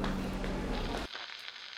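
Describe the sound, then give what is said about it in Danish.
Dense crackling surface noise with a faint low hum from a phonograph wax cylinder playing cuts off abruptly after about a second, leaving a quieter hiss with scattered small clicks. “Hør, der er lidt mere tilbage på valsen.”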